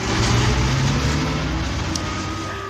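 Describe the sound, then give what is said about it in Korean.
A bus engine rumbles steadily with a low droning hum, loud at first, then gradually fading slightly as the bus pulls away from a stop, leaving behind a passenger who was still searching for a bus card. No one speaks. “하필 배차 간격도 20분인 버스를 놓쳐서 제대로 지각하는 바람에 팀장님한테 아침부터 한 소리 들었다니까요.”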